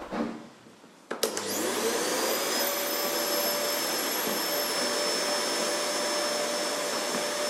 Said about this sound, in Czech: Tak počkej, počkej, počkej. Ještě ne, počkej, až on to přestane vysávat.